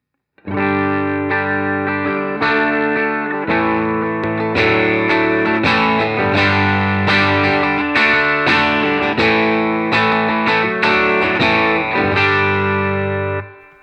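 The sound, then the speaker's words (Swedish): Electric guitar played through a Range Lord, a Rangemaster-style treble booster pedal, set very low, playing loud, overdriven chords with a bright, biting edge, struck in a steady series of sustained hits with no talking. “Eh, men nu, försöker, nu satt jag på, ehm, medan du spelar då, eh, eh, Range Lorden.”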